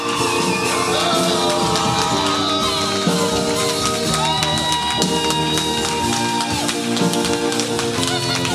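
A loud crowd cheers and applauds continuously, with scattered shouts and whoops, while steady music plays underneath throughout.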